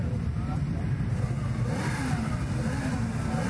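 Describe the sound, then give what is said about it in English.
A car engine roars and revs steadily, a loud, rumbling drone with a rising whine partway through as it goes by; faint voices murmur beneath it. “What sort of car's that?”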